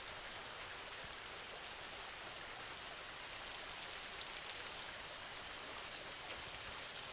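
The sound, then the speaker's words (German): Steady rain patters down on the ground in a continuous, even hiss with no voices, a soft and constant wash of drops that never pauses or changes pace. “Nimm die Regengeräusche einmal genau wahr.”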